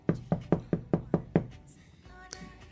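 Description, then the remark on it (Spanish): Seven quick, evenly spaced, firm knocks on an apartment door, rapping out a steady rhythm before fading into quiet with faint background noise. “Cuando de repente tocan la puerta.”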